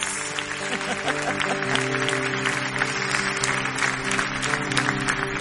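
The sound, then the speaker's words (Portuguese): An audience applauds the Lord steadily for several seconds, a dense, continuous patter of many hands clapping over sustained, held musical chords underneath. “Você pode aplaudir o Senhor por essas vidas para esse momento.”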